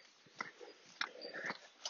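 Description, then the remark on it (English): Gritty crunching steps over many loose stones, a few uneven footfalls with scraping grinding between them, quiet, with no voices. “Just again have to crunch over these many, many stones.”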